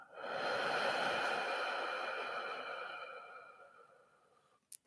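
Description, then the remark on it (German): A long, slow, breathy exhale during a breathing exercise swells quickly and then fades gradually over about four seconds, with a faint airy hiss carrying a steady tonal ring. No one speaks, and a brief click follows at the end. “Und atmen aus.”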